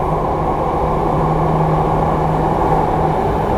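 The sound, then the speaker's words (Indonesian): A steady, loud rumble of an MRT train bound for Lebak Bulus Grab running, with dense low-frequency roar and a faint sustained hum throughout, no voices present. “Dear passengers, welcome on board. This train is bound for Lebak Bulus Grab.”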